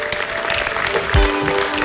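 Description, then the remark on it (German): A crowd at an SVP event claps in a dense, steady patter that holds an even loudness throughout, with one low thump partway through and a faint steady hum underneath. “Also die, die klatschen, das war eine SVP-Veranstaltung.”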